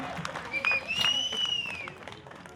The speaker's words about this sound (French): qui a couru en 11 minutes 08 le tour et on peut l'applaudir bien fort.